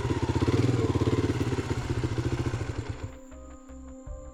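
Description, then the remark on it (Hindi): A motorcycle carrying two riders at about half past eleven at night, heading along a road toward a cottage, rumbles loudly with a fast, pulsing beat, then drops to a lower, choppier idle-like sputter with some metallic clatter near the end. “रात के करीब साढ़े ग्यारह बजे करण और ब्रजेश बाइक पर बैठकर उस भूतिया कॉटेज की ओर जाने वाले रास्ते पर चल पड़े”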